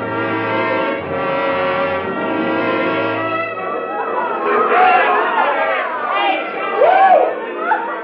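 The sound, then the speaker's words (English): A loud, sustained horn blares for a few seconds, then gives way to a noisy block party crowd on a roped-off street, with overlapping chatter, shouts and cheering voices. “The street had been roped off, and there was a block party or something going on. Anyway, it was noisy.”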